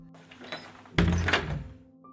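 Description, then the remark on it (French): A door slams shut with a heavy, resonant thunk, preceded by a brief creak and scrape as it swings, then a short fading rumble. No one speaks. “Et pire que ça, durant cette plaie de l'obscurité, les Égyptiens entendaient de drôles de bruits, des portes qui s'ouvraient et qui se refermaient.”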